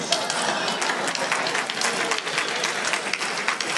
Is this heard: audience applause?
yes